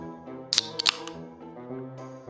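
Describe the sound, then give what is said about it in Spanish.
A drink can, the fourth of several cans opened in turn, is cracked open: a sharp metallic click and a brief hiss, then a couple of smaller snaps, over a steady low hum in the background. “Vale, vamos con la lata número cuatro”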